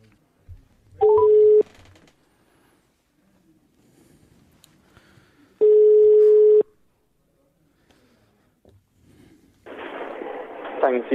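Two long, steady ringback tones from an outgoing phone call, each lasting about a second, separated by a pause with faint background noise, followed by a burst of noisy line sound as the call connects.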